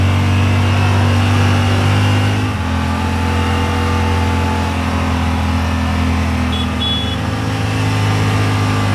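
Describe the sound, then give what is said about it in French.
A vehicle engine runs loud, a deep steady drone whose pitch shifts as it revs partway through, with no voices over it. “Ah, ça, ça tourne pas comme une voiture de voiture citadine, allez c'est parti”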